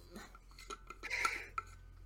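A water bottle being opened: a short run of quiet plastic clicks and crinkles, a brighter scraping twist in the middle, and one sharp final click, with no talking.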